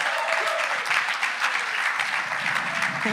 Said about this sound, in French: Et maintenant, il ne me reste plus qu'à, s'il vous plaît, avec un tonnerre d'applaudissements, accueillir Johannes Amritzer.